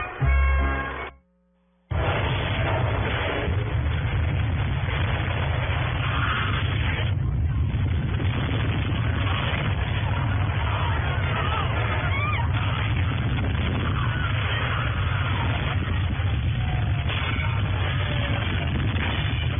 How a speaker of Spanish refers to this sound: estamos escuchando justamente el tráiler a propósito de nuestra presencia en México y de la película Terremoto